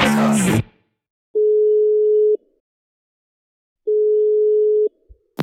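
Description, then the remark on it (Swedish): A phone line's ringback tone from an outgoing call to a rescue service: two steady, clear electronic buzzes about a second long, separated by a pause, after a brief burst of voice at the start. “Vi, vi ringer väl upp. Har du hennes nummer?”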